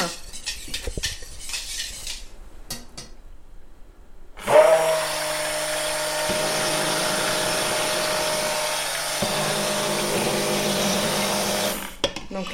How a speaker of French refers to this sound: Alors, je vais m'aider un peu du, du mixeur.